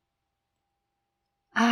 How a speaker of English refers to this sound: Burp，打了一个大嗝。